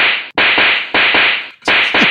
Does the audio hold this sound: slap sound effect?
yes